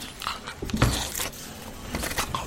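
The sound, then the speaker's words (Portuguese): A dog licks at a door frame, making wet, irregular lapping and slurping sounds in short bursts, with some soft panting between them and no voices. “Ele está a limber a porta.”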